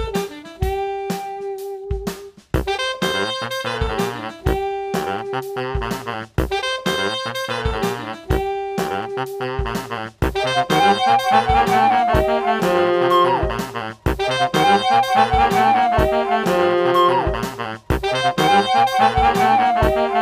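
A loud, energetic Vocaloid pop song plays throughout, with a synthesized singing voice over a driving electronic beat and sharp, regular percussive hits.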